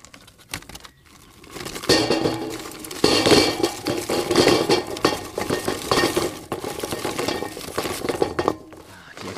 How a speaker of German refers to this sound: Experten und Expertinnen unter euch wissen natürlich schon, was das für ein Geräusch ist. Richtig, wir schmeißen den Grill an und das tun wir aus einem ganz speziellen Grund